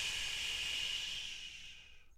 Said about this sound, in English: are you shushing me?